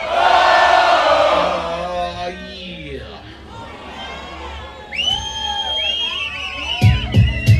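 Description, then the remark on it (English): A hip hop concert crowd in Paris roars with shouting and cheering, a loud dense wash of many voices that swells and fades, then rises again into high, sustained yells and whoops. “All the motherfucking real hip hoppers if you're feeling it out there, don't stop uh. Let me hear you make some motherfucking noise.”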